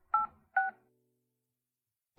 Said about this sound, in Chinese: 景叶在内心回答了这个问题，然后弯腰捡起了那份文件，掏出手机拨通了裴家老宅那边的电话。